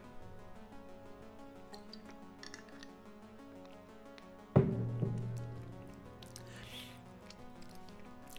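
Someone takes a drink of water: faint handling clicks and small mouth sounds, then a single resonant knock as a glass or bottle is set down, ringing briefly before fading. No one speaks.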